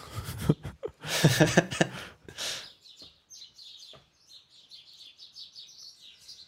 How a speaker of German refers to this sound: Was sind das für aggressive Vögel? Schon, Schreien schon sich gerade an.